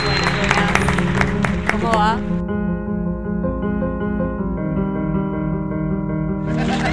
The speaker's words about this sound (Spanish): Voy a pedir un fuerte aplauso, somos poquitos, pero, Pero vamos a aplaudir